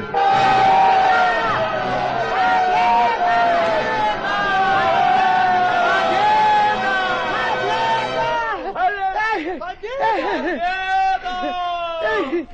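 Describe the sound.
Loud shouting from a crowd of many voices, overlapping cries and yells rising and falling continuously and densely, with a burst of more excited individual shouts toward the end.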